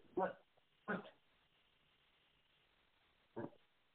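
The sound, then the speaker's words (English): A dog barks three times in short, sharp bursts, two in quick succession and then one more after a pause, moderately loud against a quiet background. “And uh, hold on one second. I gotta grab my dog.”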